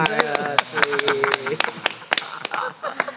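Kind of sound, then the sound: crowd, people clapping hands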